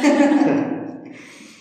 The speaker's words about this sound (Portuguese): Tá preparada? Vamos lá. Respirando, vamos lá.